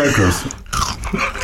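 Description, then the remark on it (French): Loud crunching of Cracottes crispbread crackers being eaten, with dry, brittle bites and chewing in quick succession, and a voice murmuring underneath. “C'est les, les cracottes.”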